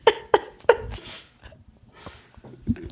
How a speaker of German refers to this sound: Husten.